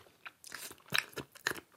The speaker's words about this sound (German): Musst du so schmatzen? Hm, aber es schmeckt halt so gut. Ich mag Lavendel.